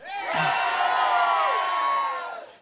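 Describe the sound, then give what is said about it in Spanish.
After a count of three, a large crowd lets out a sustained, loud collective shout all at once, a roaring wall of many voices that swells quickly, holds for about two seconds, then fades out. “Se oyó más o menos, pero yo sé que ese no es un estruendo.”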